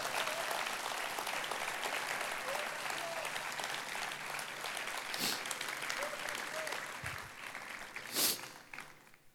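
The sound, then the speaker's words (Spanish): A church audience applauds loudly for the pastors of the church, a dense, steady wash of clapping that lasts about nine seconds, with a few scattered voices calling out and a sharp burst shortly before it fades. “Y yo quisiera pedirles que diéramos un aplauso a Dios fuerte por los pastores de esta casa.”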